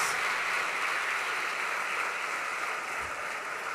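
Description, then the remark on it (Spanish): A crowd applauds the fathers standing up among them on Father's Day, a dense, continuous wash of many hands clapping at once with no pauses, sounding full for the whole stretch. “Démosle un fuerte aplauso a estos padres.”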